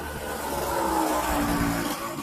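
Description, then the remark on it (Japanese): A motorbike engine drones past, its pitch rising and then sliding lower as it swells and fades across a couple of seconds, with no talking. “うわ、バイクが。”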